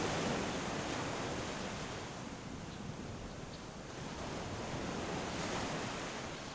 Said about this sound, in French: Laisse-toi encore porter par le bruit des vagues